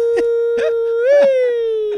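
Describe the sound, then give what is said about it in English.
A voice imitates a tornado siren: one long, steady wailing tone that swells upward in pitch, then slowly sinks. It holds loud the whole time, with brief bursts of other sounds breaking in underneath. “All of a sudden, you turned into a tornado siren.”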